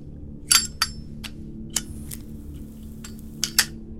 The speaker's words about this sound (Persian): واسه بیمود غذا گذاشتم ظرف آبش رو عوض کردم